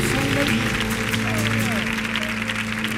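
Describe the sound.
An audience claps steadily for about three seconds, a dense, loud wash of applause with some tonal sounds and crowd voices mixed underneath.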